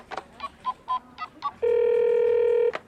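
Six quick beeping tones of a phone number being dialed, followed by a single long, steady buzzing ring tone that cuts off abruptly. No voices.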